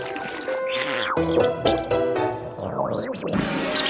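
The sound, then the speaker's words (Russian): A bog hummock sinks into swamp water with gurgling, sliding sounds rising and falling over a steady musical backdrop, fairly loud and continuous throughout. “Ой, кажется, эта кочка уходит под воду”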